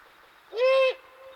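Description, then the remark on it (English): A single harsh, drawn-out scream from an adult-sized immature great horned owl in a maple at the edge of the Sabinal River, loud, lasting about half a second and rising slightly at the start, with a quiet background before and after. “an immature great horned owl calling from a maple at the edge of the Sabinal River.”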